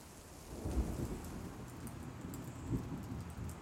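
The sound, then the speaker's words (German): Steady rain hisses and patters throughout, with low rumbling swells of thunder around the first second and again near the end; no voices are heard. “Vielleicht auch ein bisschen wegen dem Regen.”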